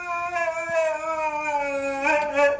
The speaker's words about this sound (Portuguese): Isto é um husky muito empenhado, não é? Muito. Ele quer que lhe abram a porta.